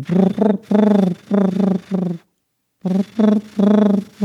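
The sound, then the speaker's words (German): A person mimics a wood pigeon's cooing with soft, low, hooting syllables in a rhythmic phrase, pausing briefly before repeating the pattern, clear with no other talk. “Ich mag auch das Geräusch, was die machen. Die machen ja irgendwie so, so”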